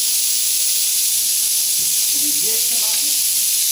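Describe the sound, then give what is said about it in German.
Steady, loud sizzling of a roulade searing in a hot pan, a continuous bright hiss throughout, with a faint voice briefly murmuring underneath near the end. “So, und der große Vorteil ist jetzt das, wenn man dieses Gericht jetzt zu Hause nachkochen möchte, dann kann man das am Nachmittag ganz in Ruhe anbraten und nach dem Anbraten gibt man das dann gleich sofort auf ein Blech.”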